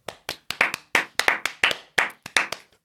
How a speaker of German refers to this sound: Dafür einen ganz kurzen Applaus.